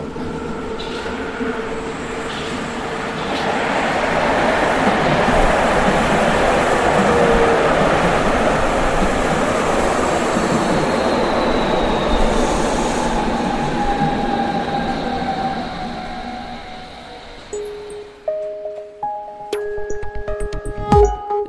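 Inside a moving subway car: a loud, steady rumble of wheels on track with a whining electric motor, easing off near the end as a short run of chiming tones sounds.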